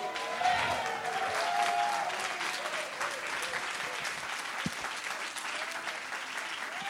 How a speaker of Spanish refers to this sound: Vamos, ese es un mejor aplauso al Señor. Give the Lord a better hand clap.